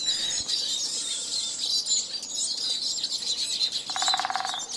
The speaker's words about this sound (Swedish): Jag känner just nu, men jag vet inte om det beror på åldern, att man blir äldre, att just nu så blir jag mest berörd av fågelkvitter. Mm. Den njuter jag väldigt mycket av. Jag tycker fåglar som sjunger är ljuvligt att lyssna på.